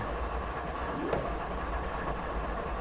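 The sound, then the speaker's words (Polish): A steady, low rumbling train sound from a train simulator, with a faint rising whine partway through, like a locomotive beginning to pull away, heard alone at a constant moderate level. “Trenażer, na którym jeździłem, zrobiłem około 1000 km. I dobrze, musimy ruszyć i mm, do przodu, hamulce na dół”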